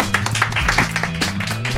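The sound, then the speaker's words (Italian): A round of audience applause for the young guests: many hands clapping in a dense, steady patter of crisp claps at a fairly even loudness, with a low steady hum underneath. “Esatto, facciamo sentire gli applausi.”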